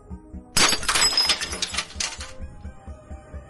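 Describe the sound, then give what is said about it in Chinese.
A sudden hard strike of a telescopic baton snaps a gilded nail with a lead core, followed by a bright, jangling metallic clatter that rings for about two seconds before fading out over a low, steady background hum. “撑开后，对着一根钉子砸了下去，”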